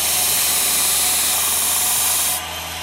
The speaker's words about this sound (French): Donc là, vous passez la lame sur une bande qui tourne. Voilà, une bande abrasive. Donc là, j'ai passé la première phase.